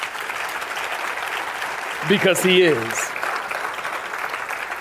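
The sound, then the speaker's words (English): An audience claps steadily, a dense, continuous wash of many hands that runs the whole length, while a man's voice speaks briefly over it partway through. “And now I want you to clap your hands.”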